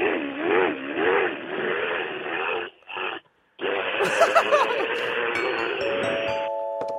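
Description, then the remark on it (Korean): Someone vocally imitates a power drill boring through a wall during interior renovation next door: a loud buzzing whine with a wavering pitch that runs for several seconds, breaks off briefly, then starts up again and keeps grinding. “옆집에서 네, 인테리어 하는데 드릴로 뚫는 소리 예, 들어볼게요.”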